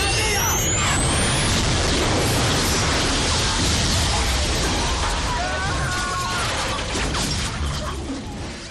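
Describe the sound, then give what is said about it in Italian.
A running jet turbine roars loudly and steadily with a rising high whine at the start, mixed with a crashing, explosive burst and rumbling debris, easing slightly toward the end. “Il poveretto che ha avuto la cattiva idea all'inizio della primissima puntata di sostare davanti a una turbina ancora in funzione dell'aereo appena schiantato, per venirne risucchiato provocando una spettacolare esplosione.”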